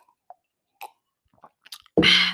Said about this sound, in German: Ähm, wie gesagt, ne, hört weg, wenn ich hier trinke, weil das ist eigentlich Tradition. Aber es ist halt auch nur Wasser, deshalb ist es nicht schlimm. Weil es ist eigentlich Tradition, dass ich das bei, bei einer Reaktion trinke.